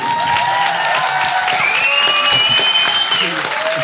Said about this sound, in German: Aber davor nochmal, äh, vor der kurzen Umbaupause, einen Applaus für alle Slammer, die alle gewonnen haben. Juhu!